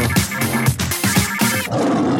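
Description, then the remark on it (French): A short, loud jingle for a news segment plays on its own, a dense roaring burst of sound with rhythmic pulses roughly every half second, ending on a sustained swell. “fait longtemps qu'on n'a pas entendu ce jingle.”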